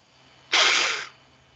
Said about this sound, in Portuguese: Eu acho que eu tô gripado que eu tô espirrando insanamente.